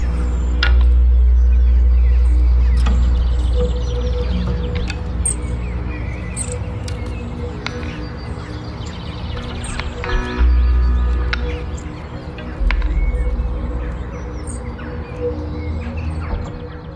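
Scattered bird chirps and short song phrases ring out over a loud, steady low rumble of wind, with a faint sustained tonal hum underneath throughout. No one speaks.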